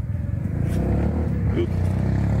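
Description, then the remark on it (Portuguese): A small pop motorcycle fitted with a PVC and fabric canopy, in Codó, revs up, its steady buzzing drone rising and holding loud and continuous for a couple of seconds. “Projeto inovador, primeira motocicleta pop com capota em Codó.”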